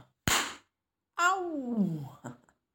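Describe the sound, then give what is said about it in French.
A single sharp, loud slap of a hand against the bare skin of a face, followed after a short pause by a drawn-out vocal cry that falls in pitch. “Entre deux claques, la température de ma peau va refroidir légèrement, puis lent.”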